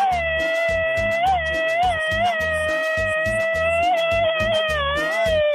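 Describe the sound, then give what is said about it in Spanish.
A loud, high-pitched machine-gun style yell rings out over a steady, thumping dance beat. It holds almost unbroken for several seconds, wavering slightly in pitch. “ándale pues, muchachos, les mandamos hasta donde quieran que nos estén escuchando este grito ametralladora.”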